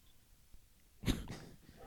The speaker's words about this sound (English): oh, dog starts barking.